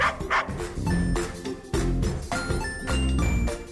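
A dog barks several times in quick, uneven bursts, loud, while bright chiming tones ring alongside like a short musical jingle. No one speaks.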